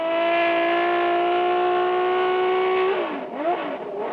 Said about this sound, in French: fait chauffer le moteur, mais l'eau est chaude seulement, pas l'huile. L'huile est encore froide, les plaquettes de frein sont froides, les pneus sont froids. Je vais donc progressivement attendre que tout monte en température.